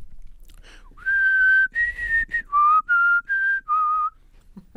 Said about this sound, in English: okay, well done. Thank you. We have a winner in the eating and whistling event.